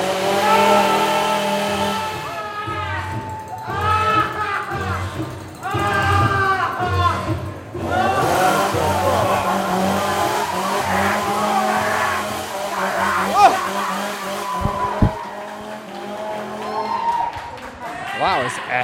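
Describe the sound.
Car tires squeal repeatedly in loud, wavering bursts amid busy road traffic, with engines revving and rumbling and muffled voices underneath.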